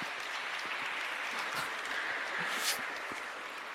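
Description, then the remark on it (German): An audience claps steadily, a dense, continuous wash of many hands at moderate loudness, sustained evenly throughout with no voices standing out. “da können wir dann nochmal klatschen.”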